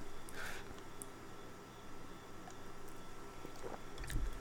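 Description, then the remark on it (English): A person quietly takes a sip of a drink, with soft, wet mouth sounds and a faint swallow against a low background hiss. No one speaks. “Excuse me, I gotta take a sip.”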